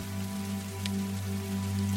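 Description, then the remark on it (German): Steady rain patters on a surface in a continuous, even hiss, with a low, sustained droning tone humming softly underneath and no voices. “Und wenn du dann trotzdem noch wach bist, dann kannst du noch äh, ein bisschen weiter diesem schönen Regen zuhören und der äh, Musik und vielleicht dann dabei einschlafen.”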